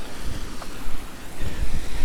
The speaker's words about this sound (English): across the footbridge over a waterfall